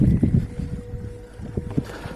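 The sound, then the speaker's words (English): Dull, hollow thumps knock against a small wooden boat's hull from below: a cluster at first, then two more isolated knocks, over a low rumble of water and wind. “There's something hitting the boat from underneath.”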